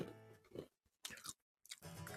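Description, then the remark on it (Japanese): Crunchy chewing of nuts by a person eating them during a live stream, with a few loud crackling bursts of munching separated by brief silent pauses, and no talking. “ナッツをボリボリ食べながらですね、配信をしておりますので”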